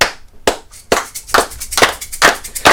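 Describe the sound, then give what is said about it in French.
An audience claps in a steady, even rhythm to accompany a singer, about six sharp, loud claps spaced roughly half a second apart, with no talking over them. “Allez, moi, alors moi par contre j'ai besoin d'un accompagnement je vais, je vais tous vous demander d'applaudir dans les mers.”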